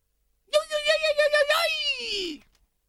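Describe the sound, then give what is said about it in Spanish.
A woman's voice imitates a mariachi grito: a loud, high-pitched warbling yell of rapid trilling pulses that slides into a drawn-out wail, falling in pitch before cutting off. “Yo no sé hacer gritos de mariachi. Usted le salió bien recién.”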